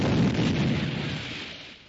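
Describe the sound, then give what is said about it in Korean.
A firecracker, lit with a lighter, explodes with a loud, rumbling boom that fills the moment and slowly fades into a noisy decay, cut off at the very end by a brief new sound. “폭죽이랑 라이터다.”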